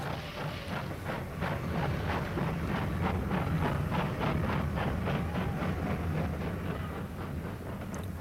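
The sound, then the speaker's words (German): A large steam locomotive pulls away again with loud, hissing chuffs, a steady rhythmic beat of roughly two or three puffs per second over a deep, rumbling roar, with no voices. “Und wirklich, mit mächtigem Fauchen und Prusten zog die große Lokomotive wieder an.”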